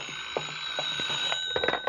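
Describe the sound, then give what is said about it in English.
A telephone rings in an apartment in the evening with a continuous, high-pitched metallic jangle, steady and insistent for the full two seconds, with faint rattling pulses underneath. No voices. “But the following evening, sitting in your apartment, an unexpected phone call hits you like a bombshell.”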